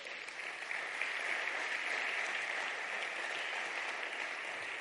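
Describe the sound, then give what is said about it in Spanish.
A crowd at a sermon gives a loud round of applause to the King: it claps steadily, a dense, continuous wash of many hands applauding at even loudness for the whole stretch, with no voices rising above it. “Dar un fuerte aplauso al Rey.”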